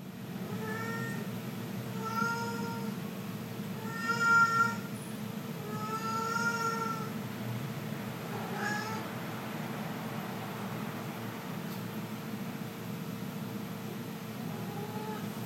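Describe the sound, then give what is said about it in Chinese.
A white pet cat named Bailong gives a series of soft, murmuring meows at home, about five short drawn-out calls in an uneven rhythm, over a steady low background hum with no talking. “这个白龙在家就是也会发出一些自己的声音，所以我们来听一下白龙的呢喃声。”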